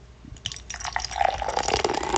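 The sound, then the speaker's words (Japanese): Beer glugs and splashes as a special Sapporo Black Label, aged long below freezing, is poured into a Starbucks mug, a steady liquid rush with bubbly fizz rising in pitch as the mug fills and foams heavily, fairly loud with no talking. “じゃあ今日もスタバのマグカップさんについていきたいなというふうに思います。”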